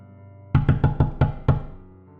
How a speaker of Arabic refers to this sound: بعد لحظات طويلة الصوت رجع تاني بس المرة دي صوت الدقات كان جاي من باب البيت الوراني